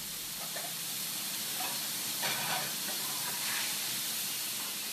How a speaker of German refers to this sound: In einer Pfanne brutzelt das Stück Kalbfleisch, das in ein paar Minuten als Schnitzel auf den Teller kommt. Es stammt von einem Bauernhof, gerade einmal ein paar Fahrminuten entfernt.